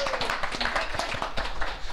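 A short burst of applause from a few people, in tribute to a former university lecturer, with hands clapping in quick, irregular overlapping claps at moderate loudness, lasting about two seconds.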